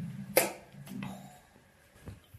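A hammer strikes a plaster wall that is being knocked down: one sharp, loud crack, then a duller second blow about half a second later, and a faint third tap after a pause. No one speaks.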